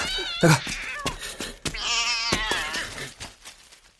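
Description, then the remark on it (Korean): A cat yowls loudly, two drawn-out, wavering cries in quick succession, the second longer and rising before trailing off into quieter mewling, as it darts out of a shop. “아버지의 가랑이 사이로 입술을 훔치며 날렵히 빠져나간 고양이에 의해 가게 안은 사탕 조각이 하나 제대로 성한 것이 없을 정도로 분탕질이 돼 있었던 것이다.”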